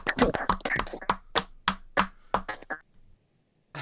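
A few people clap their hands briefly, with sharp overlapping claps that start quick and uneven, then thin out to a few scattered slaps before stopping after about three seconds.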